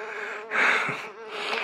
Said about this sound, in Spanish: Una mosca está justo encima de mí. Vuela en círculos.